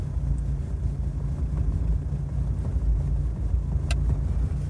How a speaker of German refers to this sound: Denn links von mir Autos und rechts von mir Autos und hinter mir Autos und alle glotzen mir in die Karre. Und die beschissene Ampel wird und wird nicht grün.